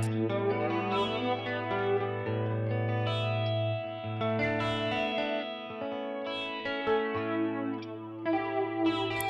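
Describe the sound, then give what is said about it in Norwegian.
A Telecaster electric guitar plays sustained chords and notes with light overdrive and a sweeping, whooshing flanger effect, fairly loud, with no voices over it. “Nydelig telekaster med litt overdrive. Ok. Så kommer flangeren.”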